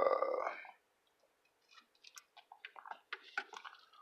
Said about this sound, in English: Like, fuck, I need a fucking sip.